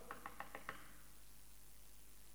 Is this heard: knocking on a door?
yes